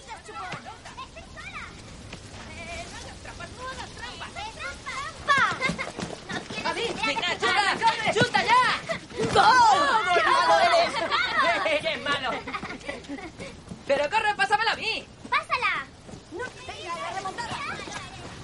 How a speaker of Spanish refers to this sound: Al oír unas voces se gira y ve a unos niños jugando al fútbol.